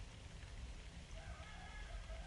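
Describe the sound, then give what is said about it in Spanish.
Light rain patters steadily and evenly in the countryside, while faint roosters crow far off partway through. No one speaks. “Eh, se escucha un poco de lluvia y a lo lejos los gallitos.”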